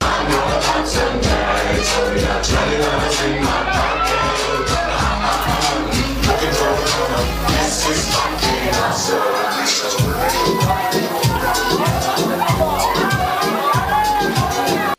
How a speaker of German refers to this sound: Seit Freitag darf in den Clubs nach rund eineinhalb Jahren Corona-Pause wieder gefeiert werden. Kurz nach 22 Uhr klang das dann zum Beispiel im Schimanski in der Nürnberger Adlerstraße so.